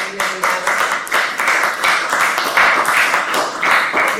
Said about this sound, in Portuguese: Um grande aplauso para estas pessoas.